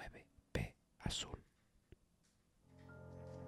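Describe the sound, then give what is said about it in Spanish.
Faint, breathy whispering from the end of a recorded phone call, replayed on a recorder after rewinding, comes in a few short hissing bursts, then gives way to a low, steady tonal hum toward the end. “Sabía que todas las llamadas eran grabadas, así que tomé la grabadora, rebobiné la llamada y volví a escuchar el susurro que esta vez pude entender mejor.”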